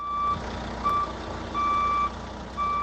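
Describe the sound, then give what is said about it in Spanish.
A bus reverses in a school bus car park in León at 8:30 in the morning, its backup alarm sounding steady, evenly spaced beeps, around four clear tones over a low idling engine rumble, loud with no talking. “Un autobús maniobra marcha atrás y da contra un armario de gas de la urbanización que el colegio tiene justo al lado.”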